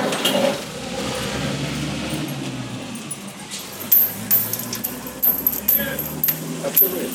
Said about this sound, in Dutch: Maar dan komt hij terug om het hek open te doen.